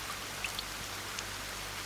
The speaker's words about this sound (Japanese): 後を追うように雨も降ってきた。雨だ雨だありがとうありがとう